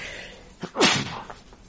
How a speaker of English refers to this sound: Because when Donald Trump continues to, oh, excuse me, folks, I'm going to sneeze.